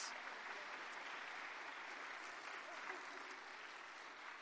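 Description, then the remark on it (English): A church audience breaks into steady applause for several young children, a dense wash of many hands clapping at an even, sustained loudness for several seconds with no voices standing out. “Hey, church, would you give all of these just a round of applause?”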